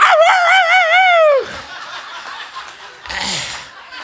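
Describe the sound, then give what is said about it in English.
A man's voice gives a loud, warbling imitation of a dog howling for about a second and a half, followed by quieter murmuring and a short burst of laughter. “That dog starts wagging his tail, jumps up on the back of his couch, puts his paw on the pastor's head, and starts howling.”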